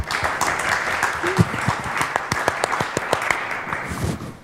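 An audience breaks into applause, a dense stream of overlapping claps with sharp individual hand slaps standing out, steady and fairly loud throughout with faint voices mixed in.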